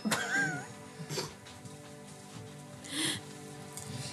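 A cat gives a short, wavering meow near the start, followed by a couple of fainter, breathier calls later on, with no talking over them.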